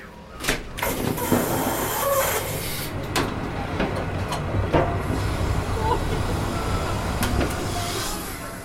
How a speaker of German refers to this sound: Draußen hat das Wetter umgeschlagen. Die verkrüppelten Bäume biegen sich im Schneesturm, der Zug schaukelt in den Böen.